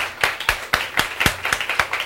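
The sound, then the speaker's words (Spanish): An audience at a gathering applauds the production team with steady, rhythmic clapping, about four sharp claps per second over a dense wash of scattered hand claps, moderately loud, with no talking. “algunos se han involucrado en esto, están, ah, pero un aplauso al equipo de producción.”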